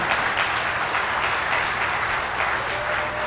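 A crowd applauds steadily, dense overlapping claps forming a continuous wash of noise that holds at an even, fairly loud level for a few seconds with no one speaking.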